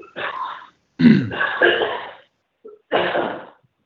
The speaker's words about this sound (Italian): scusi un attimo mi viene da tossire. Prego.